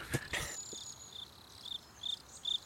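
Crickets chirp in short, evenly spaced bursts against a quiet background, fairly soft and steady, following a couple of brief sharp noises at the very start. No one speaks.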